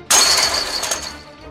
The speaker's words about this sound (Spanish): El primero examinó brevemente el cerrojo de la jaula, retrocedió, tomó carrerilla y arreó una patada en la reja.